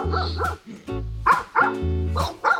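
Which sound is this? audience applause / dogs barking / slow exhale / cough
dogs barking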